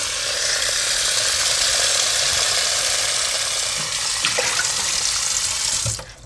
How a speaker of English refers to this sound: Okay, let's get some water running. Until it's good to drink. Yeah, so I'm gonna put some water in this can.